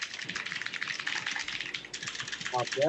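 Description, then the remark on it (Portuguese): Rapid, continuous keyboard typing close to the microphone, a dense clatter of key presses, with a voice starting to speak over it near the end. “Mas você tá não, tá datilografando”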